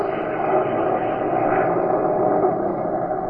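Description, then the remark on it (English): A small plane's engine drones steadily in flight through awful weather, a loud, continuous propeller hum filling the whole stretch with no pauses and no voices. “The little plane rocked, rolled, and practically stood still in midair.”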